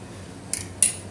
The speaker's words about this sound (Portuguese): Desculpem, estou a fazer o almoço, por isso desculpem o barulho de fundo.